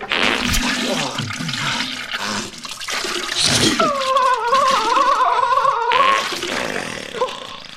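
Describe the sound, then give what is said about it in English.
Wet, sputtering diarrhea splashing into a toilet bowl, loud throughout, with a wavering, squealing tone rising out of the noise midway before the splattering continues. “I forgot about the wet splashing that's yeah, necessary.”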